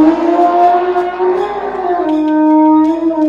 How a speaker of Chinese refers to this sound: 然后竖起了象鼻，发出了巨大的吼声。听到了什么信号？其他的大象也转过身来，团团围住小象，接连发出巨大的吼声。